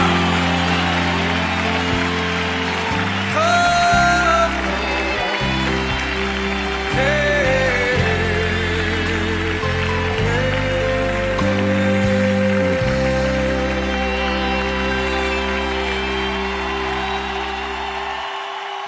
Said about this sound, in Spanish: aplaudir, con todo su corazón, con toda su fuerza!